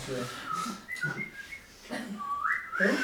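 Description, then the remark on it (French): Someone whistles a birdlike call, a series of short high chirps and rising trills that end in a brighter, louder upward flourish, with low voice-like murmurs between the phrases. “Il n'y a plus les oiseaux Si, si, mais on les met en post-production.”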